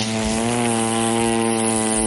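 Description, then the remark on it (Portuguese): A voice hums a steady, buzzing drone that imitates a running microwave oven, holding one low pitch loudly and evenly for about two seconds without breaks. “Literalmente, sabe assim, eu estava escutando o micro-ondas aquele”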